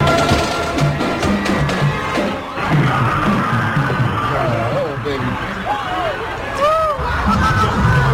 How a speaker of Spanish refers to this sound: el sonido del momento en el que ese vehículo arrollaba a todas esas personas que participaban en el desfile de Navidad.